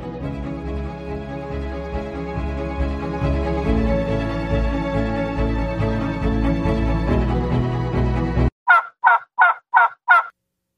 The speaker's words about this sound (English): Gobble, gobble.